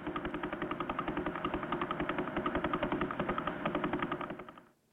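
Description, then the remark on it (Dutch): Radio signal from the Vela pulsar: a rapid, steady train of ticks, like a fast mechanical clatter, repeats evenly over a dense radio-static hiss, loud and constant for several seconds before cutting off abruptly. Each tick is one rotation of the pulsar. “Ehm, je hoort hier dus een, ritme, een, een, ritme dat wat tikt. En dat is elke keer dat je een tik hoort, is één rotatie van de pulsar.”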